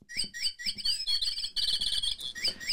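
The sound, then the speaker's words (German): A motion-sensor device shaped like a bright yellow epoxy-resin canary plays canary chirps and trills in quick, bright bursts, the twittering running almost continuously and fairly loud for a few seconds with no one talking. “Es ist ein Bewegungsmelder in Form eines knallgelben Epoxidharz Kanarienvogels, was auch immer Sie sich darunter jetzt vorstellen.”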